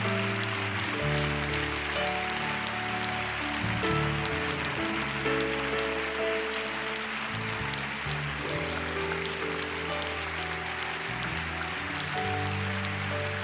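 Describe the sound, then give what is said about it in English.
An audience claps for the Lord during a prayer service, steadily and continuously for several seconds, a dense wash of applause layered over sustained keyboard chords that shift slowly underneath, with no voices standing out. “Will you give the Lord a big clap?”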